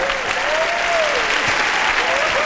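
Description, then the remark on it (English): A live audience claps steadily throughout, a dense, even wash of applause with a faint tonal whistle or voice wavering underneath. “People are applauding.”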